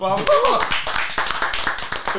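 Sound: applause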